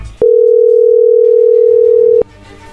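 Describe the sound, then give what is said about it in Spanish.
A telephone line tone as a number is dialed to place a call: one steady, unbroken mid-low beep holding for about two seconds, loud and even, then cutting off to quiet background noise. “Ok, que le llame el lobo, no haga ruido, ahí se está marcando.”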